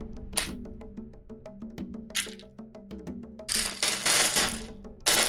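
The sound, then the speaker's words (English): A large pile of polyhedral dice, including four-sided dice, is dumped onto a table during a tabletop role-playing game, a dense clatter of sharp clicks and rattles building into a loud, continuous rolling rattle near the end. No talking. “I, I couldn't find the D4. I just dumped them out.”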